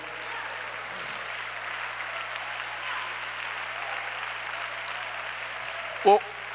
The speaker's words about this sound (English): Why don't everybody clap your hands?